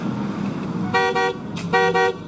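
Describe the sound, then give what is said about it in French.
A car horn on a 1957–58 car honks twice in quick succession, loud, its harmonic blasts sounding over a low engine rumble as the car pulls up. “Oh, ça, c'est de la bagnole, chapeau.”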